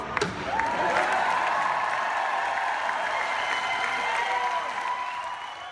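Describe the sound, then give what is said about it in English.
A single sharp gavel knock, as COP president Laurent Fabius knocks his gavel to the table to pass the Paris Agreement on climate change at COP21, is quickly swallowed by a loud, sustained wave of applause, with cheering and whistles rising above the dense clapping from a large crowd. “This was the moment that COP president Laurent Fabius knocked his gavel to the table to pass the historic Paris Agreement on climate change.”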